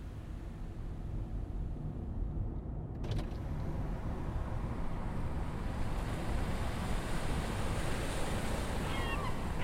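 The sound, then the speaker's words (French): A steady, loud rush of wind blends with the low roar of ocean surf, heard through an opened window of a moving car on a hot summer day, continuous throughout, with the sound suddenly opening up and brightening about three seconds in. No one speaks. “Alors qu'on roulait, j'ai senti le vent sur mon visage et surtout, j'ai vu la mer.”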